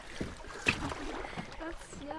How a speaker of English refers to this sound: I was really trying. To, the boat, the canoe was moving.